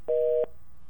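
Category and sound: signal or alarm, busy tone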